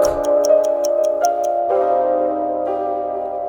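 A clock ticks steadily, about eight quick, evenly spaced ticks, over a sustained droning musical chord; the ticking stops halfway through while the music carries on.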